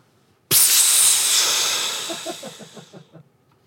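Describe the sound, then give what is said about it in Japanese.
A voice imitates a snore that sounds like a bus's air brake: a sudden loud, bright hiss that bursts out and slowly fades over about three seconds, ending in faint breathy sputters. “あのうちのあのお笑いの相方はですね一緒に泊まったらあいつ俺は絶対いびきかかんって言ってたくせに寝てすぐ嫌だったんですよあいつのものはあれですねバスのエアブレーキですね”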